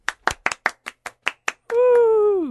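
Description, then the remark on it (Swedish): Around nine sharp, loud hand claps in a quick, slightly uneven rhythm, welcoming a guest onto the show Pudeltimmen, then the clapping stops and a voice holds a long, steady, slowly falling sung-out tone. “En stor applåd!”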